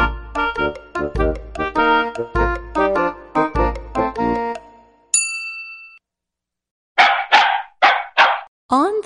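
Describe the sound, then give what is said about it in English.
Four quick, loud dog barks in a steady burst near the end, following a bouncy musical phrase and a single bright chime. “she met a dog. A silly dog.”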